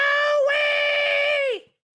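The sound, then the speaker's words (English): A voice imitates a woman screaming: one loud, sustained high-pitched shriek held steady for over a second before its pitch sags and cuts off. “It sounded like that, her screaming.”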